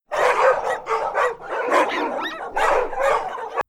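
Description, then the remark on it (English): Black and tan coonhounds running on a chain run yelp and bark in quick, overlapping bursts, loud, with high yips breaking through a nearly continuous run of barking, as people get out of a car. “Black and tan hounds ran back and forth on a chain run. They yelped at us as we got out of the car.”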